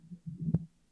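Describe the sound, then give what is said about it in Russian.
A short roll of thunder during a thunderstorm, a low muffled rumble that swells to a dull thump midway and then fades out, heard faintly with no voices. “И вот я услышала такие короткие раскаты грома, и испугалась, не взрыва или это часом.”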